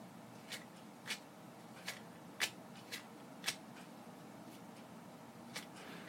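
Quiet crinkling and soft papery clicks as a hand-rolled cigarette is rolled from shag tobacco, with about nine short rustles spaced irregularly over a faint steady background hiss and no talking.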